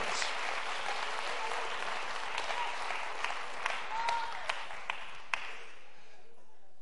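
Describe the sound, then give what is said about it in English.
An audience claps steadily to give praise to the Lord, a dense wash of applause, a few sharper individual claps standing out near the end before it quickly fades to silence. “Clap your hands one more time and let's give the Lord praise.”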